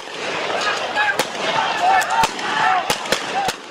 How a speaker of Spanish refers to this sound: Así suena Venezuela.